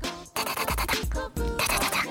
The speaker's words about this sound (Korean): 땅에 빗방울이 떨어질 때, 투둑,